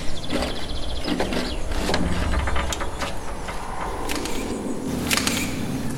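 A camera shutter clicks several times at irregular intervals, sharp, over a steady background of rumbling, noisy ambience with no one speaking.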